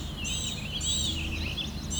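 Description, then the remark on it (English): A blue-gray gnatcatcher gives thin, high, buzzy calls in three short bursts over a steady low background rumble. “Okay, within two seconds says blue-gray gnatcatcher.”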